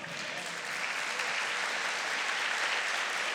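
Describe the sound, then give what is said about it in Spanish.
A church audience claps together in sustained applause for the Lord, a dense steady wash of many hands at an even level from start to finish. “¿Cuántos pueden darle un aplauso al Señor?”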